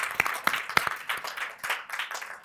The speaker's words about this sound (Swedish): Ja, en varm applåd.